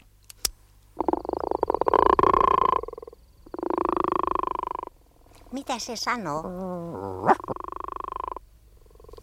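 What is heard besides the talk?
frog croaking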